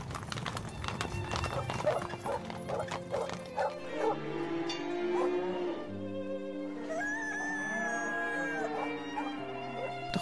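dog barking and whimpering

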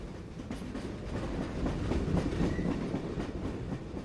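train rolling on rails

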